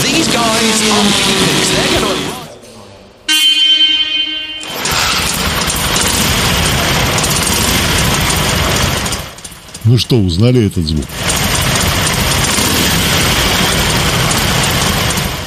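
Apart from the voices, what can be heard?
harley-Davidson motorcycle engine idling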